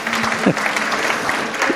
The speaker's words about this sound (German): Es ist so toll, wenn Applaus nicht erzwungen wird. Ganz klasse.